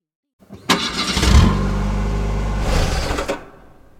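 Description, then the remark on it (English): A car engine cranks over and over in a steady, grinding churn for about three seconds, loud, then cuts off without catching. “She cannot start the engine.”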